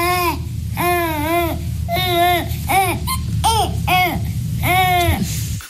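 A baby babbles and wails in a run of short, rising-and-falling vocal bursts, loud, with brief pauses between each cry and no other voices.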